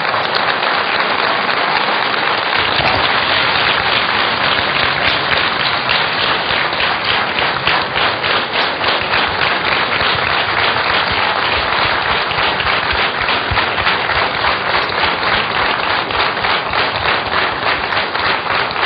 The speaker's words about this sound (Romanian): Vedeți de ce zic ăștia că fac stand by comedic? aplaudați în Sfânta Biserică.